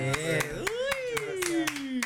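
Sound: clapping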